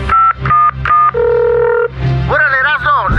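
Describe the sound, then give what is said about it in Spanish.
Four quick telephone keypad beeps in a row as someone dials to call the character Migra in Choco Salvaje, then a steady held tone, loud; after that a voice starts talking over a low background. “Márcale al Migra”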